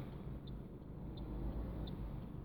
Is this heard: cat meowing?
no